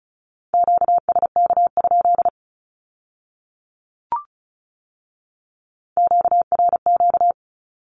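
Two quick bursts of high-pitched Morse code beeps sending Q-codes at 35 words per minute, at a steady pitch, separated by a few seconds of silence broken only by a single soft click.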